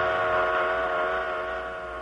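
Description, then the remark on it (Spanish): A loud, sustained whistle from a moving train sounds as one continuous, rich harmonic blast that holds mostly steady in pitch and fades slightly toward the end, with rumbling noise underneath and no voices. “A la velocidad del tren se puede sentir el cambio de tono del sonido, pero no el de la luz.”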